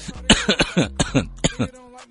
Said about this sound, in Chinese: 哎呀，我怎么开始突然想咳嗽了呢？